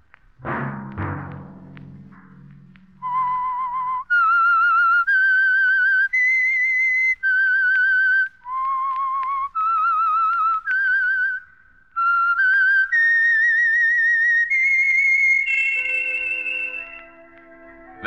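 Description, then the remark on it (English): A lone whistler carries a slow, eerie theme melody of sustained, clearly separated notes that climb and dip in pitch, loud. A brief thud opens the passage, and a soft orchestral chord closes it. “Let that whistle be your signal for the Signal Oil program, The Whistler, each Sunday night at this same time.”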